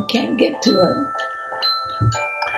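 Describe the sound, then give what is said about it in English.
Another telephone rings steadily in the background with a spam call, a faint electronic tone running beneath a person speaking in the foreground. “Sorry for that other phone ringing in the back there.”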